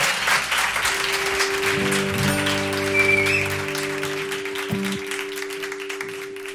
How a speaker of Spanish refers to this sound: Mucha suerte. Un aplauso para ellos.